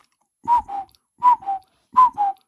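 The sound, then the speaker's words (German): A cuckoo clock call, used by a device as its calendar appointment reminder alarm, sounds three times, each a clear two-note "cuck-oo" with the second note slightly lower, evenly spaced and fairly loud with no talking. “Das Teil hat tatsächlich eine Kuckucksuhr als ähm, Alarmerinnerung für Termine.”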